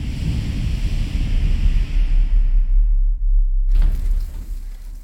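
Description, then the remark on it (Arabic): Steady wind rushes and whooshes throughout, a deep rumbling roar with a hissy layer that fades away midway and then returns suddenly near the end. No voices can be heard. “وقفت مشي حاولت تتسمع للأصوات حولها لعلها تكتشف شي سمعت صوت الزيز زقزقة العصافير وهرير الهواء”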